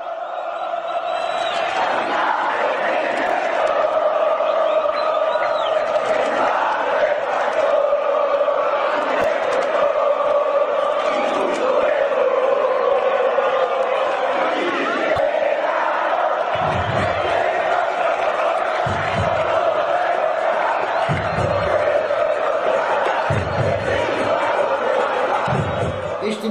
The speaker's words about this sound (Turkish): Bugünkü tezahüratımız Güney Amerika'dan geliyor. Paraguay'a gideceğiz. Cerro Porteño takımının tezahüratıyla başlıyoruz.